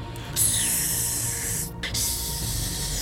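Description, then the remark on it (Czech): Large green snakes hissing in two long, steady bursts separated by a brief pause, loud, with a low rumble underneath and no voices. “Když vylekaná Eliška chtěla spěchat dále, padala přes jejich klubka a hadi sičeli.”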